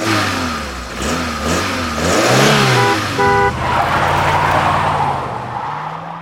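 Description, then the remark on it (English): A car engine revs up loudly, its pitch rising and dipping through several throttle bursts, then settles into a steady, continuous drone as the vehicle pulls away. No one speaks. “Wedge the can in the engine of your car near the manifold where it's hot.”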